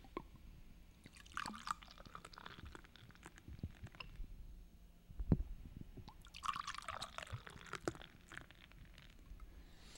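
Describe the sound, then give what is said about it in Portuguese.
Beer is poured twice into glasses, each pour a bubbling, splashing burst of a few seconds with a sharp clink between them. The sound is moderately loud, and no one speaks. “Olha, eu tenho certeza que com esse barulho, para quem está ouvindo, ficou é, muito cara, afim de abrir uma cerveja.”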